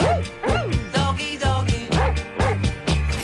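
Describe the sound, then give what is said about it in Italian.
A dog barks repeatedly, around seven sharp, high-pitched barks in a steady rhythm, loud, over a low humming background with no talking. “Doggy, doggy.”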